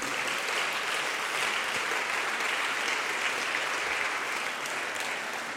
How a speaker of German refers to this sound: Können wir ihm Applaus geben für die Predigt vom letzten Sonntag? Das war sensationell.